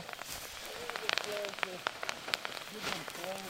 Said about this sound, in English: What you're hearing right now is probably my favorite sound. It's big piles of wet rockweed being heaved onto a bed of scorching hot rocks. This is going to protect the lobsters from the heat of the rocks.